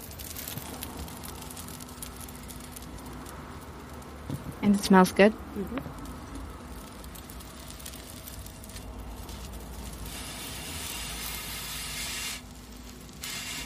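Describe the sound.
A steady, soft crackling hiss of a pancake frying in a pan, ready to be flipped, runs under brief conversation, growing slightly brighter and louder toward the end.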